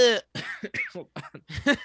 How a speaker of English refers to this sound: I'm fucking coughing from trying to do accents.